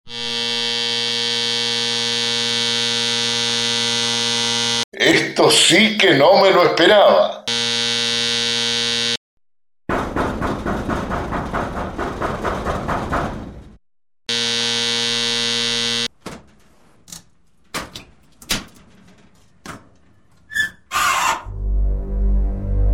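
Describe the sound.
A buzzing doorbell at a house rings in three long, steady, loud bursts of a few seconds each as a visitor rings it in a radio drama, with people talking between them and sharp clicks and bumps near the end.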